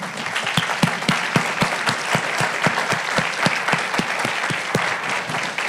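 An audience in a room claps steadily for several seconds, applauding two young speakers, a dense, continuous patter of applause with some sharper individual claps standing out.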